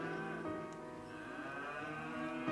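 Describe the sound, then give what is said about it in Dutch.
Cows moo outdoors, heard through a door just opened to the outside: a long, low, steady lowing that fills the whole moment with rich harmonic tones, clear, with no talking over it. “Dat is voor de koeien een hele mooie om te gaan slapen.”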